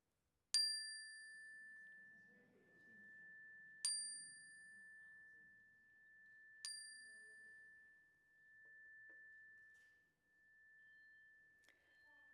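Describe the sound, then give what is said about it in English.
A bright chime is struck three times a few seconds apart during a morning religious service, each strike ringing out into one long, clear sustained tone, with a faint low murmur of voices beneath it as people speak names aloud. “And as the chime rings, speak them aloud into the room so we can hold them with you.”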